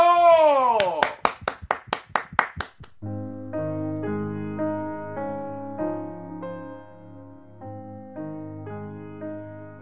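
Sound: hand clapping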